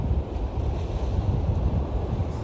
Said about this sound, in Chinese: 听着海声，海浪，海浪拍打的声音。哦，今天给海风吹个够。